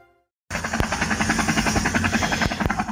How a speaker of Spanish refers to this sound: Aquí estamos estrenando sección con el reporte del tráfico y clima desde el famosísimo helicóptero, Una bonita aeronave toda llena de balazos que me encontré allá en un terreno baldío por Sinaloa.